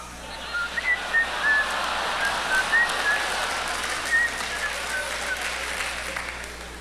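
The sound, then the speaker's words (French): Someone whistles a light, wandering tune in short, soft notes while pushing a boat stuck in sand, nearly buried under a steady wash of broad hiss that sounds like clapping or crowd noise. “Alors, je sifflotais tranquillement en poussant.”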